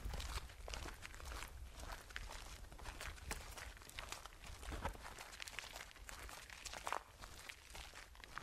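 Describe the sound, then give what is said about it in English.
Steady crunching footsteps on gravel, fairly loud, with a continuous gritty texture and regular stride rhythm throughout, no voices present. “I substituted footsteps on gravel, stolen from YouTube, for the original horse hoofbeats.”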